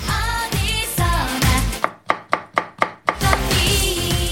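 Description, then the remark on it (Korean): Kitchen chopping of a mother cooking: about six sharp, evenly spaced knife knocks on a board, heard alone as a sound effect during a brief break in an upbeat pop song that plays loudly before and after. “어머니께서 요리를 하시는 정겨운 소리가 들렸는데요.”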